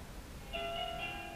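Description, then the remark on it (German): A doorbell chimes, a sustained ringing tone that shifts pitch partway through, fairly quiet against a low background rumble with no talking. “Okay, jetzt klingelt es hier.”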